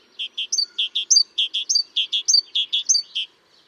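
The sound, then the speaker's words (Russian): A great tit sings its rhythmic song: a crisp, high two- and three-note phrase repeated steadily about a dozen times, clear, with no voices. “Например, мы уже рассказывали в выпуске про синиц, что у больших синиц песни всегда ритмичные. Та-та-тан, та-та-тан, та-та-тан, та-та-тан.”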